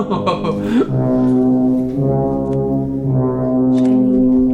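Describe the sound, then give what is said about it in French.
An eerie horror-movie score from the film The Shining plays loud: deep, sustained brassy drones that swell and shift, with a sliding, wailing tone near the beginning, and no voices. “oui, Shining.”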